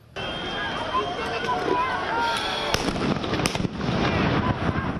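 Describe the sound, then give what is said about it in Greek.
Sharp, loud blasts of stun grenades fired by police go off over a dense, noisy crowd outside the Parliament in central Athens, Greece, shortly after noon, with shouting and commotion throughout; several bangs land in quick succession midway as hooded rioters throw molotovs and stones. “Έξω από τη Βουλή, κουκουλοφόροι πέταξαν μολότοφ και πέτρε, ενώ οι αστυνομικοί απάτησαν με χειροβομβίδε κρότου λάμψη και ρήψη χημικών.”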